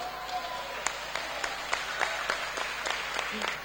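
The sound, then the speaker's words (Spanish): A crowd applauds steadily for Prometeo, many hands clapping in a dense, continuous wash with some sharper individual claps standing out at a fairly regular pace. No one speaks over it. “Otro aplauso enorme para Prometeo.”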